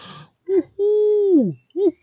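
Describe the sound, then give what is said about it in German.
A voice imitates an owl: a short hoot, then a long sustained hoo that slides downward at the end, followed by another short hoot. It is close and fairly loud, with no talking. “Das kannst du am besten, indem du eine Eule rufen lässt.”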